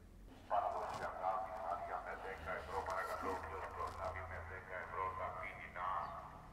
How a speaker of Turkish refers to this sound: Patates soğancı geçiyor galiba. Tam da videoyu yaparken bir sokak satıcısına denk geldik. Yunanistan'da da var demek ki böyle şeyler.